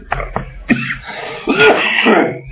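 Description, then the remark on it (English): A person with a flu gives a few quick, chesty coughs, followed by a longer, rough throat clearing that rasps for about a second, all fairly loud with no talking. “I feel like I want to cough. I've got a cough in my chest.”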